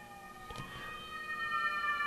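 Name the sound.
ambulance siren passing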